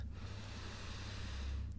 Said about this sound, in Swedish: tar vi bara ett djupt andetag in genom näsan, fyller upp hela bröstkorgen och magen med ny luft.